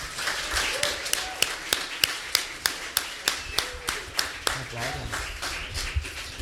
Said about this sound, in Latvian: Esat sveicināti podkāstā Bize vaļā otrajā live epizodē. Aplausos jums par to, kas ieradušies!